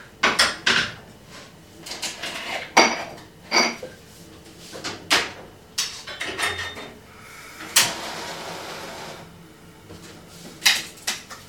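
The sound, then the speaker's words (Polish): A frying pan is handled on a kitchen stovetop for frying chicken breast coated in instant-noodle seasoning, with a series of sharp metallic clanks and knocks at irregular intervals and faint kitchen rustling in between. “I teraz przenosimy się na kuchenkę, gdzie będziemy smażyć właśnie pierś z kurczaka obtoczoną w przyprawach z zupek chińskich.”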